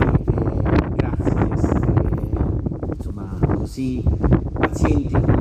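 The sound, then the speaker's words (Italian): Wind gusts buffet an outdoor microphone at an open-air talk at the Borgo dei Filosofi event, with a steady low rumble and rough flutter, loud throughout, while an indistinct voice is faintly buried beneath the noise. “voi questo vento che insomma spero non vi stia riflettendo troppo, per me è un grande piacere invece patirne la brezza, ve lo confesso.”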